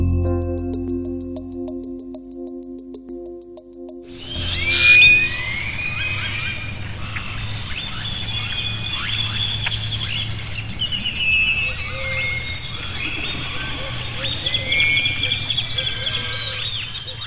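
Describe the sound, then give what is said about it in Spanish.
A dawn chorus in the municipality of Jalpan de Serra, in the north of Querétaro: after a few seconds of low, steady hum, many birds burst into overlapping high chirps, whistles and trills that continue densely over a soft, constant rumble. “Al norte de Querétaro, amanece en el municipio de Jalpan de Serra.”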